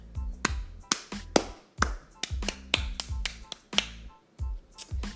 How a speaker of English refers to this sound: Andre Vasilevskiy, amazing job. Let's just give a clap to Andre Vasilevskiy.